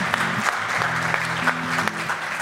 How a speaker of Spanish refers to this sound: Por eso todos, vamos a darnos ahora todos un aplauso. Bendito sea el Señor.